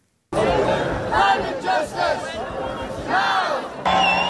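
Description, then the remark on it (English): A large crowd of climate activists (Extinction Rebellion) blocking a major Dutch highway between The Hague and the German border chants and shouts in loud, rhythmic bursts, voices rising and falling together in a dense roar that continues steadily throughout. “Part Street protest, Part Street party. Climate activists gathered on a major Dutch highway to call for an end to fossil fuel subsidies.”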